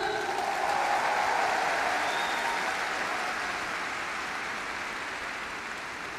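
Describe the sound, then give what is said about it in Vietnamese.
A crowd claps steadily for several seconds in answer to a call to clap louder if they are happy, a dense wash of many hands with no speech over it, holding fairly loud before easing slightly toward the end. “và tất cả chúng ta đều muốn hạnh phúc, nếu hạnh phúc thì hãy vỗ tay lớn hơn”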